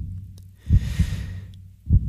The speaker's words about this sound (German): Wir atmen alle noch einmal tief ein. Hier ist der Moment der Auflösung.